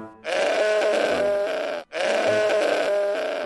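Two loud, drawn-out bleats from a goat inside a room, each lasting over a second with a wavering, nasal tone, separated by a brief pause, with no talking.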